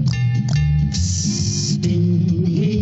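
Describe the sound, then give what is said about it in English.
A heater runs loudly and steadily, hissing with a low hum underneath while sharp metallic clinks and clanks break through every half second or so. No one speaks. “It's all about clinking and clanking and hissing.”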